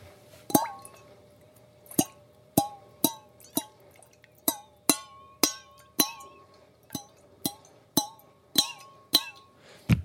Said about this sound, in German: Das ist diese, diese, so eine kleine Metallkanne und wenn da Wasser drin ist, gibt es ein lustiges Geräusch, das ich gut finde.